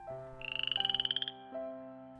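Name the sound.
frog croaking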